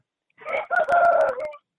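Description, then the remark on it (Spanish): A rooster in Cauca, Colombia crows once, a loud call lasting just over a second with a short rising start, a sustained strained middle and a trailing drop at the end, heard alone. “Estamos muy contentos de que nos acompañe desde esas hermosas tierras del Cauca donde escuchamos cantar los gallos.”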